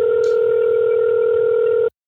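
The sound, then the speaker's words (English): A phone call tone as a call is tried one more time: one steady, unbroken mid-pitched hum that holds loud and even for about two seconds, then cuts off abruptly. No voices are heard. “I would be shook if this phone connected.”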